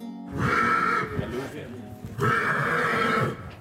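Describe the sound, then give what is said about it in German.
A heavy Noriker draft horse, a white leopard-spotted horse with black spots, neighs twice, loud, each whinny lasting about a second with a short pause between them. “sind acht schwere weiße Rösser mit schwarzen Punkten, Tigerschecken aus der Rasse der Norika.”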